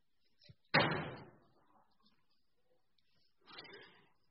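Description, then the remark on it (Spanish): A door swings shut with a loud slam that rings out briefly, followed a few seconds later by a softer rustle or latch sound, with no talking. “si alguien puede cerrar la puerta ahí un, poquito, me, me, ayuda a mí.”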